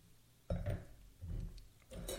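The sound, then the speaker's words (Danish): Wine being poured into a Spiegelau Burgundy wine glass, coming in three short splashing bursts with faint glassy clinks, quiet background and no talking. “Jeg smider den lige op i, øh, i det her andet glas.”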